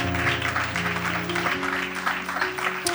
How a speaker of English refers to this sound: Oh, y'all should be clapping. People are coming to the altar to get their issues taken care of.